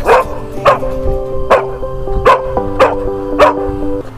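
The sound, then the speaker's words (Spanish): A dog that guards the Hospital Municipal Ichilo in San Carlos barks six times in a steady, evenly spaced series, each bark sharp and fairly loud, with soft background music playing steadily underneath. “Hoy le presentamos la historia de un perro que cuida el Hospital Municipal Ichilo de San Carlos.”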